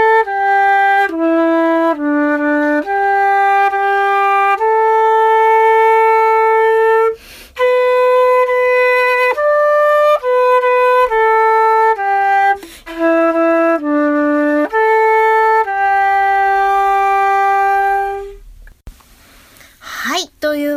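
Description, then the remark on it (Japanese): A solo silver Western concert flute plays the melody 'Umi' slowly and clearly, sustained notes with smooth steps between pitches, fairly loud, with brief breaths between phrases and no talking. “えー、続いてですね、このシルバーの西洋楽器フルートで同じく海吹いてみます。”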